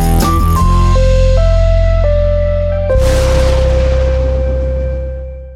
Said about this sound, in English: Did I hear like um someone hawking a loogie? No, it was a lightning sound.